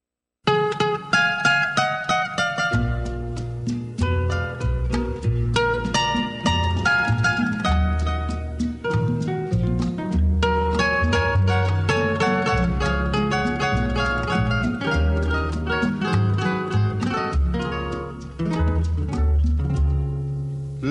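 An instrumental intro of a Mexican song plays loud and continuous, with bright melodic lines over a steady bass that enters a few seconds in; no singing or talking is heard.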